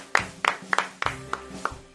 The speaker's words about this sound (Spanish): Ahí se, se aplaude, ¿por qué no? Se le aplaude. Aplausos espontáneos.